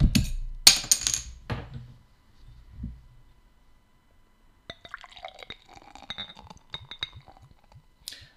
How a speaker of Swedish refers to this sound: innan vi går vidare så tänker jag att vi kan väl korka upp. Ja men precis. Eller knipsa upp eller vad man säger om kapsa upp. Inte fan vet jag. Kapsla av. Kapsla av. Slappna av och kapsla av.